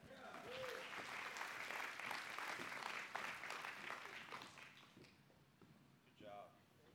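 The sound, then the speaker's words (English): An audience claps steadily for about five seconds for participants who have just been told to sit down, a dense, even patter of many hands that fades out, followed by a brief spoken voice at the end. “Give them a hand clap.”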